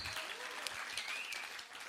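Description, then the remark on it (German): A crowd applauds steadily, many hands clapping in a dense, continuous patter that holds at an even level throughout, with no pauses. “Wir geben immer mal Applaus, hey, merci viel, vielmal für dein Investment.”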